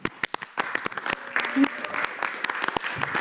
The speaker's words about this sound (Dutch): Ah. Applaus.